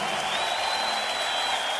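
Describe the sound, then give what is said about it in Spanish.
An audience at a live concert claps together in alternating rhythm, a dense, steady wash of hand claps that holds at an even loudness for the whole moment, with no voices standing out above it. “Ahora, palmas alternativas.”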